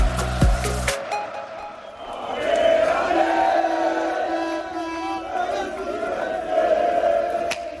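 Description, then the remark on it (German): Hundreds of FC Köln fans with a pyro show chanting and cheering as the team arrives at the Geisbockheim after a 3-1 derby win at Borussia Mönchengladbach: a dense roar of many voices with sustained sung chants rising and falling, heard from within the crowd. “Hunderte FC-Fans, Pyro-Show. Die Mannschaft kommt an und wird abgefeiert und das völlig zurecht.”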